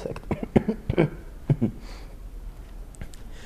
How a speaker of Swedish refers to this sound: Det låter jättesorgligt när jag börjar hosta också.